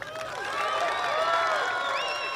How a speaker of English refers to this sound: As you can hear from those applause, the crowd was a lot smaller than Donald Trump was used to, than what he expects, and that what he likes to brag about.